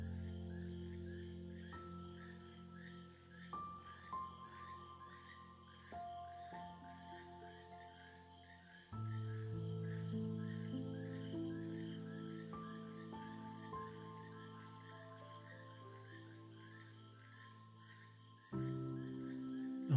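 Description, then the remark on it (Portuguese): Crickets and frogs chirp at night in a steady, rapid pulse throughout along a rural road away from the city, fairly faint, beneath slow sustained musical tones that shift every few seconds. No voices. “Tudo que você pode ouvir aqui nessa linda estrada são sons de grilos e sapos noturnos.”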